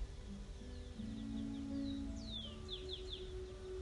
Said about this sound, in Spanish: Gracias Señor por la brisa de esta mañana. Por los pájaros que cantan.